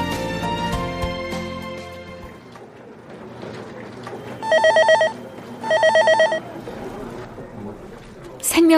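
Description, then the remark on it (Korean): A telephone rings twice in distinct bursts of rapid, high, trilling electronic tones, heard over a low background bed of voices and music. “하, 진짜 전화를 받네.”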